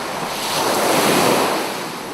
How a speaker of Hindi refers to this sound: आपने कभी लहरों की आवाज को गौर से सुना है